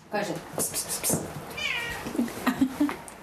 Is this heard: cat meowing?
yes